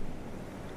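A soft, steady wash of calm ocean waves, a continuous low rushing murmur with no distinct breaks, heard briefly and at a fairly quiet level with no voices.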